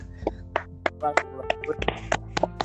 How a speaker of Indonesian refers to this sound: tangan, tepuk tangan, tepuk tangan.